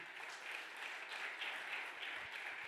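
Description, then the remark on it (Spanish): An audience applauds in a dense, steady wash of many hands clapping, sustained without pause for the whole few seconds, with no voices standing out above it. “Del otro aplauso fuerte a papá.”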